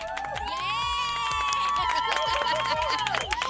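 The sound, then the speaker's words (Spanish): A small group in a radio booth claps steadily for a girl's 12th birthday while several voices cheer and whoop in high, sustained shouts, the whole burst staying lively and fairly loud for a few seconds. “¿Hay aplausos o qué?”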